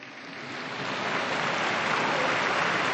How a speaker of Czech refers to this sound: Potlesk pro všechny nové blahoslavené. Facciamo un applauso a questi nuovi beati, tutti.